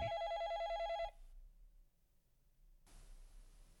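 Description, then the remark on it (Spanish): A telephone rings loudly for about a second, a bright warbling electronic tone, then cuts off into near silence before a soft hiss of background noise rises. “¿Te llaman? ¿Hasta ahora?”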